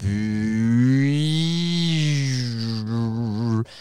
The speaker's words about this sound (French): il y a euh, ce qu'on appelle un contrôle de pitch, euh, une modulation portamento. Donc c'est pour faire par exemple des sons